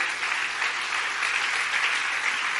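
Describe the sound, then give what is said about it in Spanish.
An audience applauds in praise of God the King, with dense, steady clapping from many hands that holds at an even, fairly loud level throughout without pauses. No one speaks. “Dale un buen aplauso de alabanza al Rey.”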